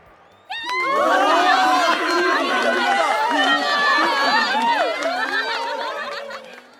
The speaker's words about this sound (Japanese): シマウマ魔術師は3つ数えて手を振ると何もなかったはずの手に突然トランプが現れました観客は歓声を上げベルマン巡査も手が真っ赤になるほど拍手しています